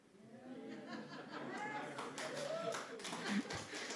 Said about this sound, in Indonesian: Ada tepuk tangan.